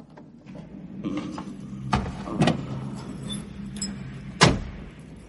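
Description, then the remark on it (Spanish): A car engine starts and settles into a low, steady rumble, punctuated by a few sharp clicks and thumps, with a faint jingle like keys. A woman has taken the keys, sat the client in the passenger seat of his own car, and starts it from behind the wheel to drive him away. No one speaks. “La mujer arranca y se lleva a Eduardo de allí.”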